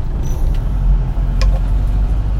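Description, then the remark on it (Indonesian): Steady low engine and road rumble from inside a moving manual-transmission car being driven, loud and continuous, with a brief faint rattle midway and no one talking. “nah baca email lagi goyang-goyang mobil mobilnya manual lagi guys”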